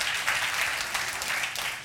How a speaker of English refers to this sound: Church, let's give a round of applause to those who did that. That's awesome.